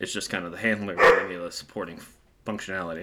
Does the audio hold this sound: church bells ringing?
no